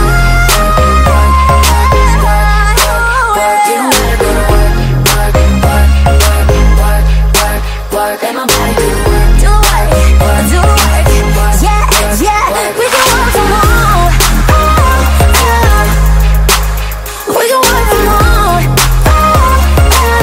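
A loud, polished pop song by a girl group plays on Rádio Web Splendor throughout, with a thumping bass line, a steady beat and brief drops in the groove every few seconds.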